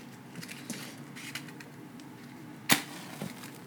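A match is struck once: a sudden, sharp scratchy burst that flares loudly and fades within a moment, with a few faint clicks and soft rustling before and after it and no voices.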